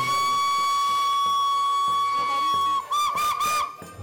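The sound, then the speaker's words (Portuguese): The whistle of a historic German steam locomotive hauling five Portuguese carriages on a trip to Tua, Portugal, blows loud and steady, then wavers and rises near the end, over the low chugging rumble of the train. “começamos esta viagem onde vamos até ao Tua, neste comboio histórico.”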